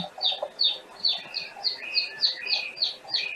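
Hatchling chicks chirp in a nest, a steady run of high, thin peeps repeating about three times a second, with a soft background hiss and no voices.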